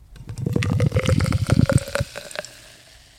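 Fizzy beer from a can glugs steadily into a glass for about two seconds, splashing, then the pour stops and a soft crackle of settling foam and bubbles lingers.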